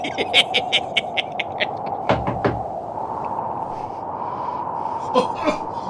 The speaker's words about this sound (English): In a moment now, you'll hear me knock on Santa's door and he'll unlock it, never more to lock again.